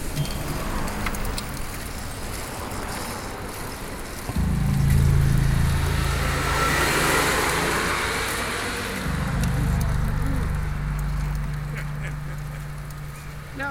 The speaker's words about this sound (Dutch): Oh, er komt een auto achter, zo jongens.